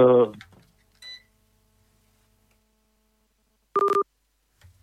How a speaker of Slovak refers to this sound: nám spadol z linky nejakým spôsobom. Ideme zistiť, že či sa mu vybil telefón, alebo len vo svojom rozrušení aktuálnom stlačil nejaký gombík, nechťac. A zvoní to zvoní, no tak asi ho budeme o malú chvíľu opäť počuť.